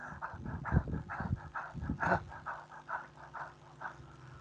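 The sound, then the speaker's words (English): A person imitates a dog's panting with quick, rhythmic huffs of out-breath, about three per second, fairly loud, with no talking. “Pants? Yeah, like the panting dog.”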